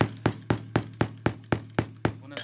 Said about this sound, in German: in Franken sagt man Mörtelkufte, also so, so ein Behälter, wo man bei der Gartenarbeit Erde reinmacht. Das ist meine Bassdrum und ich habe hier so eine Fußmaschine von einem wirklichen Schlagzeug umgebaut. Da ist ein Tennisball oben drauf,